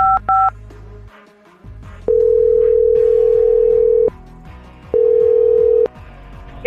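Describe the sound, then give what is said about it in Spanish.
A phone dials with a quick pair of keypad tones, then a steady ringback tone sounds in two long, even bursts separated by a pause, with a faint low hum underneath. “Pues la verdad es que ahí te va, ahí está marcando ya.”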